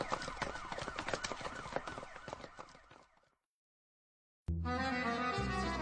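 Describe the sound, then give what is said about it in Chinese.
A police car siren wails as the car stops at the door of a detective agency, in rising and falling sweeps over dense, clattering noise for about three seconds, fades into silence, then a loud, steady harmonic tone cuts in abruptly. “就在这时，一个侦探所的门口警笛大作。却有一辆警车停在了侦探所的门口”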